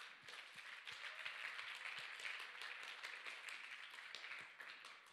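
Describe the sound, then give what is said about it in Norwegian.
A church youth service audience applauds the worship and technician teams, a dense wash of many hands clapping steadily for several seconds with no one speaking over it. “Kan vi gi dem en applaus?”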